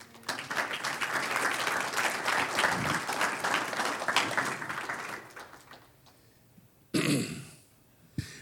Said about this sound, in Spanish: Un aplauso al Señor.